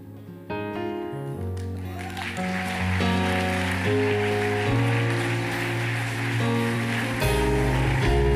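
An audience claps steadily and loudly during a sermon, a dense wash of many hands over sustained organ-like music with deep bass, building after the first couple of seconds and continuing throughout.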